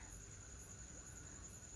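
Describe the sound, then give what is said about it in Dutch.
A steady, high-pitched chorus of crickets chirping at night, in the dark at a silent retreat monastery, with soft pulsing trills layered over a faint, continuous background hum. No voices are present. “Je hoort de krekels op de achtergrond.”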